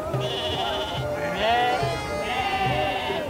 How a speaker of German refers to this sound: Mindestens so viele Schafe wie Besucher gibt es hier auf dem Berg. Sie warten in großen Gattern auf den Schlachter.